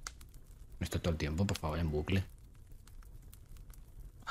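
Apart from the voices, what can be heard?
crackling fireplace fire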